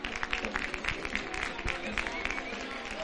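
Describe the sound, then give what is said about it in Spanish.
A crowd applauding steadily as the procession's paso de misterio enters through the church door, dense overlapping claps filling the scene, with voices murmuring and talking underneath throughout. “Están escuchando aplauso”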